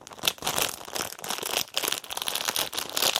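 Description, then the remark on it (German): A plastic bag with an item inside crinkles and rustles continuously for a few seconds, fairly loud, with irregular crackling bursts as it is handled and handed over. “Ja, hier, da in der Tüte ist das drin. Geben Sie doch mal her.”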